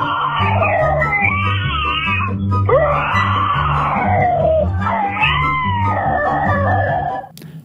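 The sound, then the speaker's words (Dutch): Loud, drawn-out roaring growls from people imitating a dinosaur, left as messages on a voicemail: three long wavering bellows in a row with a rhythmic low rumble underneath, ending abruptly. “en dat mensen konden deelnemen door hun beste dinosaurusbrul op zijn voicemail achter te laten.”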